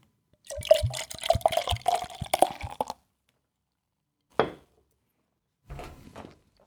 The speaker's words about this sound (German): Warte, ich gieße mir noch was Na gut, warte, warte, warte, ich, warte, Dann trinke ich auch einen Schluck.